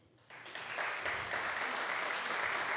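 A crowd bursts into applause, starting abruptly and building into steady, dense clapping that carries on without letup.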